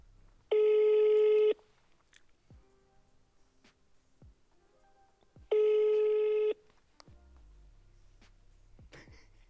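Two long electronic ringback tones, each about a second, sounding roughly five seconds apart over a quiet background with faint rustling and a few soft clicks.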